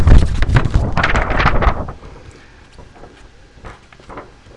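A thin, flexible, transparent blue polyethylene record crackles and rustles loudly as it's handled, a dense burst of crinkling for about two seconds before settling into sparse, quieter crinkles.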